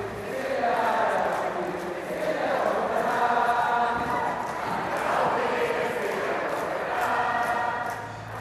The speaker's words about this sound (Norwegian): Men det her var strengt tatt allsangen fra forrige festival.